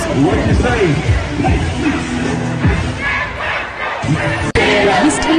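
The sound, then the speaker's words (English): A big group of eight-year-old kids yells and chants along to new songs at a school dance, loud, a continuous overlapping roar of voices with one sudden brief cut-out near the end. “I saw this uh, this video of these kids at a school dance, and they're just going ham, bro.”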